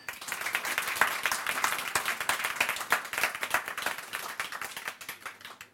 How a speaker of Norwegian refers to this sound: Gi en applaus til